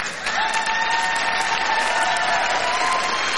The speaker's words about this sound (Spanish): Ay, señor, aplausos.